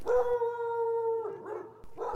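Dogs bark from far off, heard from quiet streets: a long, drawn-out howling bark, then a couple of shorter yelps, fairly faint with no voices present.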